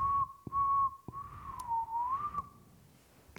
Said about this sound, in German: Bei Farnstedt fehlen Zentimeter und dann pfeifen wir ab.